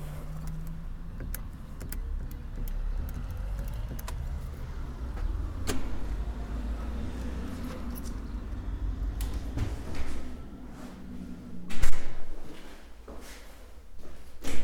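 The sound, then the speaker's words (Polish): A door leading to a building's stairwell is unlatched and pushed open with a few sharp clicks and a louder clunk near the end, over a steady low rumble of background noise. No one speaks. “zmierzamy do klatki, zaraz otworzę drzwi i wtedy będzie to słychać znowu.”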